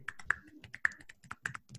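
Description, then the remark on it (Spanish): A quick, uneven burst of about ten sharp, dry clicks, a playful imitation of crabs applauding with their pincers, with no talking. “Aplausos de cangrejo.”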